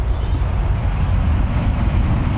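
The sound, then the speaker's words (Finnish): A steady low rumble of trucks passing outside, constant and moderately loud throughout, with a faint high whine above the drone and no voices. “noita rekkoja menee paljon.”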